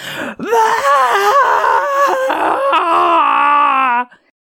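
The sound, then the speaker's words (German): A voice imitates an enraged ogre, no longer able to speak, roaring like a wild animal after someone it then follows into a ruin: one loud, sustained bellow of about four seconds, its pitch wavering and straining before it cuts off abruptly. “Der Oger, außer sich vor Wut und nicht mehr in der Lage zu reden, brüllte wie ein wildes Tier Gerald hinterher und folgte ihm mit schwerfälligem Gang in die Ruine.”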